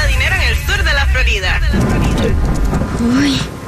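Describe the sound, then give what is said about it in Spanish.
A loud thunderstorm with deep rumbling thunder and steady rain hiss; voices are heard over the storm in the first half, which then continues on its own. “vaya tormenta.”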